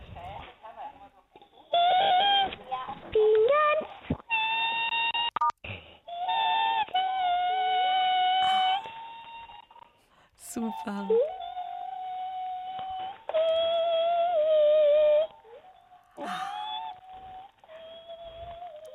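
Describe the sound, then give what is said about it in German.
A high-pitched voice sings over the telephone, long, wavering siren-like tones that swoop and hold in several drawn-out bursts with short gaps, fairly loud, with an echo and a brief spoken word in between. “Hohe Stimmlage. Und das klingt jetzt bei dir aber ein bisschen anders, eher wie so Sirenen.”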